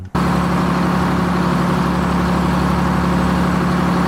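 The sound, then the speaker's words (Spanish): Heavy oil extraction machinery drones steadily, a loud, constant low hum with strong tonal bands and a broad mechanical rumble that holds unchanged from start to finish. “Extracción de petróleo.”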